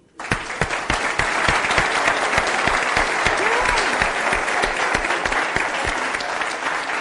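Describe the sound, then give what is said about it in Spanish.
An audience breaks into steady applause for a seated man, dense clapping that starts abruptly and holds at a loud, even level for several seconds with a few sharper claps standing out. “Mire, donde se ha sentado, un aplauso”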